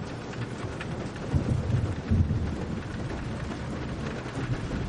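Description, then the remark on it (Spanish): Steady rain hisses across the whole clip, with a low rumble underneath that swells briefly in the middle, like thunder or passing traffic. No voices. “Llueve.”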